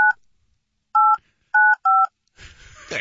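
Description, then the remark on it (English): Four short two-tone keypad beeps of a phone being dialed, evenly clipped and close, followed by a brief burst of muffled noise and a voice at the end. “Yeah, we, we get it with the dial tone.”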